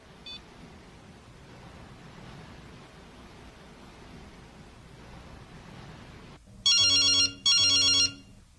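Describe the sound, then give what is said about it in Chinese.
General Manager Xu's telephone rings in two loud, bright electronic bursts near the end, following several seconds of steady hissing background noise with no voices. “徐总经理今天的电话可还真多啊！”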